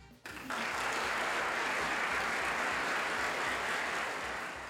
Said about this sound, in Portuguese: Vou pedir pro editor que sou eu botar umas palmas aí.